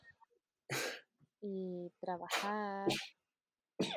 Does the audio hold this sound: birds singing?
no